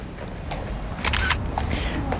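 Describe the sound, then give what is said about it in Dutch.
A mobile phone camera shutter clicks, a short, crisp snap heard over steady background noise, with a couple of fainter clicks and rustles around it. “Hier, hoe werkt die? Hoe werkt die camera?”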